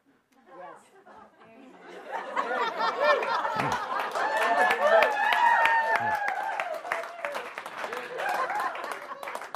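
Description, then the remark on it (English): An audience claps, the applause swelling over the first couple of seconds into a steady, dense patter of hands, mixed with lively crowd chatter and some laughter throughout. “the audience is, uh, for those just listening in, don't have the advantage of seeing their, their uh, clapping at the, their extraordinary good looks today.”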